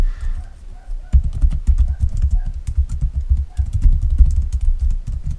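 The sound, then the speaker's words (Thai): Rapid, uneven clicking of keys on a computer keyboard, a steady stream of sharp taps lasting several seconds over a low, muffled thumping rumble, with no voices. “มันก็จะมีเสียงพิมพ์”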